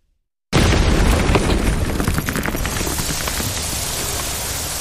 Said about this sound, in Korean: 광고나 영업 전화가 분명할 텐데도 계속 울리는 벨소리가 듣기 싫어 투덜대며 방으로 가는데 등 뒤에서 폭발음이 들렸다.